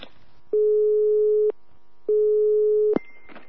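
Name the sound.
telephone ringing tone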